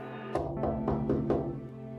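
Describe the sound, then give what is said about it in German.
A fist knocks on glass five times on a dark, wet night at home, in a quick, slightly uneven series, each blow a sharp, solid thump, with a steady low hum running underneath and no voices. “Es ist ganz sicher eine Faust auf Glas.”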